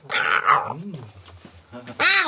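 tomcat meowing

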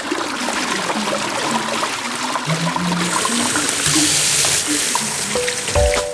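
water being poured

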